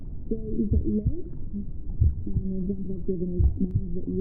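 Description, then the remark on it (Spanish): Muffled, deep thumping of Catherine Gordon's heartbeat heard from inside her womb, with irregular low pulses under a murky, droning hum of tones resembling her voice filtered through water. “Desde ahí dentro puede oír su corazón, su respiración y por supuesto su voz.”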